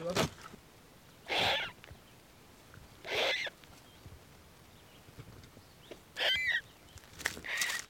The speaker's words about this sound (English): And right there, just a few feet from the entrance, two fluffy little turkey vulture chicks. Oh my gosh, they're tiny!